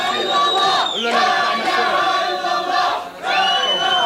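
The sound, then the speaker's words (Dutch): A large crowd chants the religious slogan "There is no god but Allah" in unison, loud, voices rising and falling in rhythmic phrases with a brief dip before the chant swells again. “Je hoort, er is geen God, uh, er is geen God dan Allah.”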